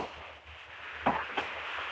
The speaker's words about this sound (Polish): No właśnie w tej chwili słychać syreny i czasami gdzieś tam strzały, ale to do tego jeszcze, jeszcze wrócimy.